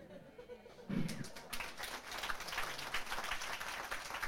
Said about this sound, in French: Je veux dire, ouais, moi aussi j'applaudis comme vous.